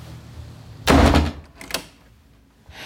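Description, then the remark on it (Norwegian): A door shuts with a loud thump as someone leaves, followed a moment later by a smaller click as it settles. Quiet room tone surrounds it, with no voices. “Gå ut den døra!”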